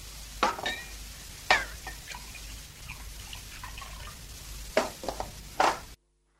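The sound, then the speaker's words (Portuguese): A spoon stirs aspirin into a glass of water, ringing against the sides in several sharp clinks with soft swirling and scraping between them, then stops abruptly. No one speaks. “Tome o seu ácido Dei um copo d'água.”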